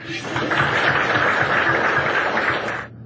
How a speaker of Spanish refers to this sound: para quien pido un aplauso